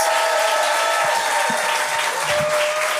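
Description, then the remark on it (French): A crowd at a show claps and cheers loudly and steadily as the first performer is introduced, a dense wash of applause with scattered whoops rising above it, sustained without a break for a few seconds. “On donne un maximum de bruit pour...”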